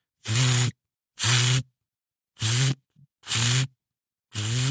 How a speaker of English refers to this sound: It's my water pump, and it's pumping and it's pumping and it's pumping. It shouldn't be on, but in our rush to leave, I had left it on and didn't notice.